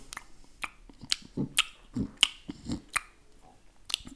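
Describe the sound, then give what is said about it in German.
Wet lip smacking, a series of sharp, moist clicks and soft puffs repeating irregularly, about eight in a few seconds, with no talking, as if a mouth is imitating someone puffing on a pipe while sitting in front of a fireplace fire. “Und wir sehen Gandalf kiffend vorm Feuer sitzen, wie er mal wieder so schmatzt so”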